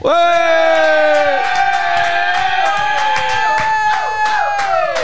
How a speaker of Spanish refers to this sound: Un podcast que empieza gritando.